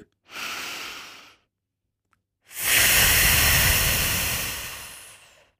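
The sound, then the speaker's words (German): A deep breath drawn in through the nose during a breathing exercise: a short airy inhale, a brief pause, then a longer, louder rush of breath lasting about three seconds. No one speaks. “Einatmen.”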